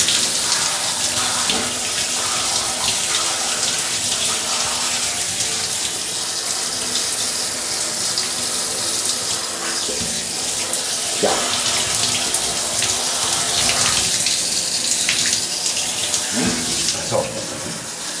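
Shower water runs steadily for the whole stretch as someone rinses off their whole body, a loud, even hiss of spray with occasional splashes and thuds as the flow is broken up.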